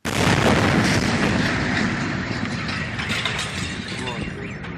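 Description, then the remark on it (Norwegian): A meteorite's airburst explosion over the Ural region of Russia, one of several that exploded there in the morning hours: a sudden loud, broad boom that rolls into a sustained, rumbling roar, slowly fading over several seconds. “Ja, dette er eh, eksplosjonslyd fra det vi nettopp eh, nevnte.”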